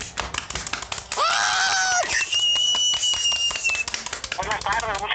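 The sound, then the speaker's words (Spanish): Brisk, steady applause runs throughout, with loud whoops and shouts rising over it and a long, high whistle cutting through the middle, as an audience cheers to welcome a guest, a sports commentator and journalist. “Y pues sin más choro, vamos a presentar como se debe a Diego Reos, comentarista deportivo y periodista deportivo. ¡Aplausos!”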